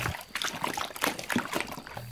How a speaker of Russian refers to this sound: Филин тоже наклонился над лужей, но ничего кроме себя не увидел и, рассердившись, взрыхлил своей мохнатой лапой в воду.